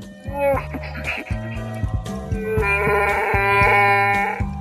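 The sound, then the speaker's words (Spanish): A voice imitates a Wookiee growl, speaking in the language of Chewbacca: loud, throaty bleating howls in a few drawn-out bursts, the last one long and sustained, with no ordinary speech. “¿Cómo se dice eh, en, idioma chubaca? En idioma chubaca, en Wookiee.”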